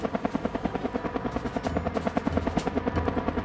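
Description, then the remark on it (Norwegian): A rescue helicopter hovers directly overhead in freezing cold, holding in place for a long time while a rescuer with a stretcher or harness is awaited. Its rotor blades thud in a fast, steady rhythm over a loud, rumbling engine roar that fills the whole clip with no voices. “Og så skjer det ingenting, og så står bare det helikopteret der og dundrer på rett over meg.”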